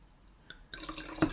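Wine is poured into a glass: a single small drip, then a short, splashy trickle of liquid building briefly before stopping. No one speaks.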